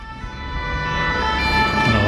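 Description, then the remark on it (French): The siren of a first-aid emergency truck wails steadily and grows slightly louder as it arrives to take in two injured people at a tense demonstration, over a low rumble of street traffic, with no one talking. “Dans une ambiance tendue, un camion euh, des premiers secours est arrivé pour prendre en charge deux blessés.”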